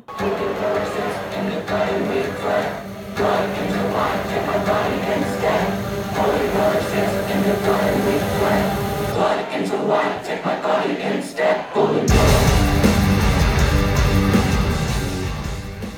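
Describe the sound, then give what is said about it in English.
A live metal band plays a song at a concert, opening with a steady, melodic riff before the full band crashes in louder and heavier near the end. “they played 14 songs total”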